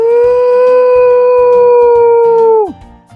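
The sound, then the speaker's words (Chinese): A human voice imitates a wolf howl during a reading of the children's picture book 'Xiao Lang Guai Guai' (Little Wolf). It holds one loud, steady mid-pitched note for over two seconds, then drops off sharply, with soft rhythmic sounds underneath. “在我的梦里，我是一只。真正的狼，呜！”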